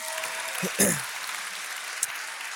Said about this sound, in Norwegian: Så kan vi ikke bare begynne med å gi en applaus til de som står bak, og som er med og legger til rette for dette?